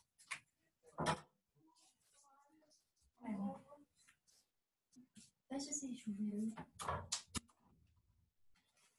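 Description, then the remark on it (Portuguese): A door being shut: a couple of sharp clicks and a soft thud from the latch and frame, followed by a person laughing and talking briefly. “Deixa eu fechar aqui a porta.”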